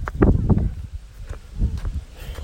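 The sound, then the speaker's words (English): Muffled footsteps of a dog walker passing by outdoors in a residential community, a handful of soft, uneven thuds with light scuffing and rustle, stronger at first and then fading slightly as the walker moves on. “well, you basically heard one of our dog walkers in our community.”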